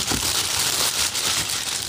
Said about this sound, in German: Ja? Das ist das Papier über den Schuh. Okay. Neue Schuhe. Ich habe die neuen Schuhe endlich.